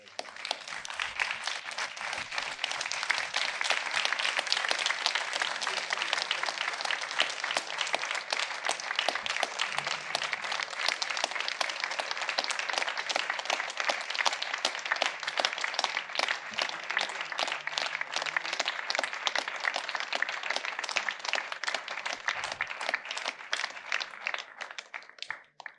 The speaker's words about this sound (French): Et je propose que, et je propose qu'on se lève et qu'on les applaudisse pour les soutenir.